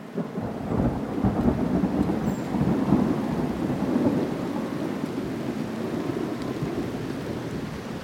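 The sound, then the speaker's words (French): Steady rain pours down while low, rolling thunder rumbles continuously underneath, a dense, enveloping storm sound with no voices. “La pluie oblige à la fraternité.”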